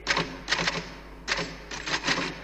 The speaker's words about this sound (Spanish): Bueno, entonces haremos una regla. Cuando yo esté aquí y escuches que estoy tecleando